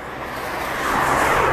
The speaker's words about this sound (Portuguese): Mano, isto deve ser bué da podre, tá, os, os carros a passar, foda-se. Ainda por cima vou para, vou para, para, para a estrada mesmo principal.